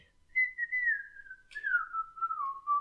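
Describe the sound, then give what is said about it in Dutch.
A whistled film theme melody: two long, smoothly sliding phrases that drift downward, clear, with no one talking over it. “Eh, ik had dat vroeger als ringtoon.”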